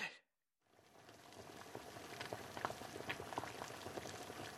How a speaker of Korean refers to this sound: 새하얀 우유가 섞여 밝고 고운 빛깔을 띤 수프가 보글보글 끓으며 투명한 거품을 일으켰다.